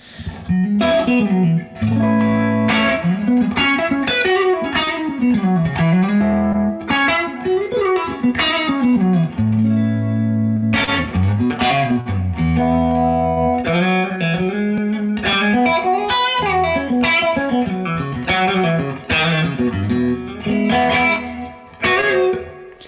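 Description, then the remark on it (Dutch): An electric guitar played through a switched-on gold GHS Morning Glory overdrive pedal, giving light bluesbreaker-style break-up, plays a continuous melodic passage of picked notes and bends, with a warm, mildly broken-up tone and sharp attacks. No one talks over it. “Dat is een heel fijn pedaal voor de bluesbreaker-achtige break-up tones eigenlijk.”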